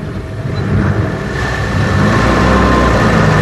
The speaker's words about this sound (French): Il est l'heure. Allez, faites démarrer la caravane, les camions. Allez-y.